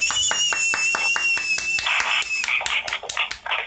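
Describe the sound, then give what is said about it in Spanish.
Steady, rhythmic hand clapping that becomes quicker and more scattered toward the end, with a thin, high, sustained whistling tone running over the first part. “¡Aplausos!”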